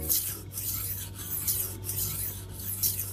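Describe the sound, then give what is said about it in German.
A knife is drawn repeatedly across a knife sharpener, giving four or five rhythmic, bright rasping strokes, each a hissy scrape with short pauses between, over a low steady hum. “Meine Messer sind ja, schon wieder scharf ja.”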